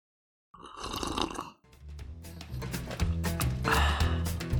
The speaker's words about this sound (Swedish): Alltså du kan ju inte dricka kaffe när vi ska spela in podd. Nej, men det hörs nästan ingenting. Alltså det hörs ju jättemycket. Ja, men jag var så sugen.